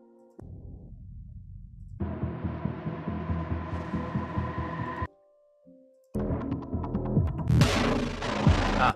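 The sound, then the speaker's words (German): A loud, pulsing synthesizer tone with a rapid throbbing, chopper-like rhythm, playing in several sections with brief gaps and a brighter, buzzier final stretch. No voices. “äh, da hatte ich einen Synth-Sound, den fand er zu helikoptermäßig.”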